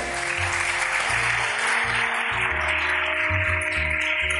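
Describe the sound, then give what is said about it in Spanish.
An audience breaks into sustained applause, a dense, steady wash of clapping hands that holds at an even level for several seconds, with a low rhythmic pulse running underneath. “Un aplauso por todos estos hijos que Dios nos ha dado.”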